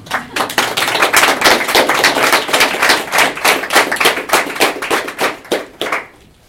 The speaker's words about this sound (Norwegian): Erik Solheim, gi ham en applaus!